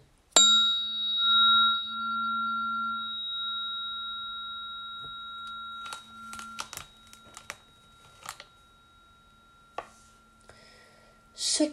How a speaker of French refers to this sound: Alors je vais vous faire écouter l'énergie du diapason de Vénus.